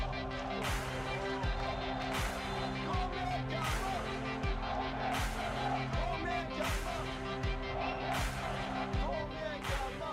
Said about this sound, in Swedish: Men vi inleder vignett.